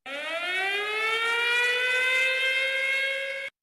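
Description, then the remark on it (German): A "Prediction-Alarm" jingle: a single alarm siren wails for about three and a half seconds, its buzzy, harmonic-rich tone sliding slowly upward in pitch at a steady, fairly loud level, with no talking over it. “Der Prediction-Alarm, jetzt kommt's.”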